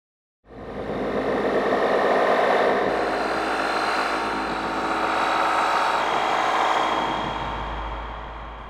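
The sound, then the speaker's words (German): A dense, droning software synthesizer preset called Desolated Saturn swells in after a brief silence, a broad roaring wash with a deep rumbling low end that holds steady and slowly fades slightly toward the end. “Und wir gehen mal in die Presets und fangen mal an mit äh, Desolated Saturn.”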